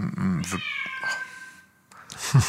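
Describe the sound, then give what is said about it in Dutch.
A deaf white cat lets out one long, drawn-out meow, loud and slightly strained, with brief human voices just before and after it. “En hij miauwt zoals een dove spreekt. hij hoort zichzelf niet.”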